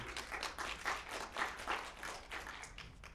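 audience applause

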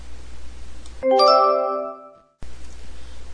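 doorbell ringing

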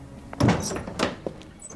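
window being closed

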